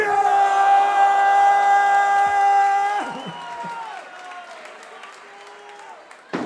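An audience at a rap improvisation performance applauds and cheers, a loud sustained whoop riding over the crowd for the first few seconds before the clapping continues more softly and fades.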